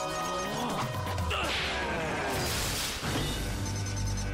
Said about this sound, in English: Have you noticed all the electric guitar sound effects in this uh, in this episode? I like it. I do too. Uh, that was like an electric guitar slide there. Oh, they got. You know what those sound like? The graboids from Tremors.